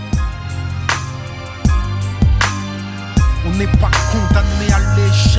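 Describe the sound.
A French rap song plays loudly, with a male voice rapping over a steady drum beat, punchy snare hits and a deep sustained bass line.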